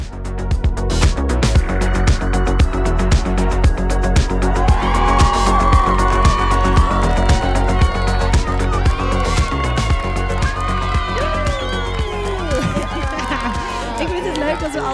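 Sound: applause and cheering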